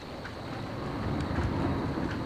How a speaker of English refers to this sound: The rain drops in smoky silver streaks. It pops umbrellas, waves windshield wipers.